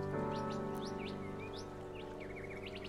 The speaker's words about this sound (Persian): متوجه آواز پرندگان در درختان بشین خوشبختی ساده اونها